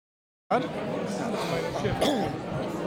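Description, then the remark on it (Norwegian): A steady murmur of many overlapping voices fills a busy reception and gala dinner held one floor up after a performance, with occasional faint clinks and a cough rising above the continuous crowd chatter. “Jeg gikk eh, opp en etasje til der det var mottagelse og festmiddag, og fant tre personer som vi nå skal høre litt fra.”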